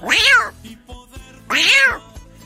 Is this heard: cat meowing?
yes